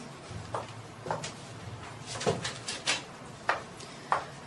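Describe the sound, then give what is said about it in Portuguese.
A door is shut with a series of light clunks and clicks from the handle and frame, with a low steady hum underneath and no talking. “Entre e feche a porta.”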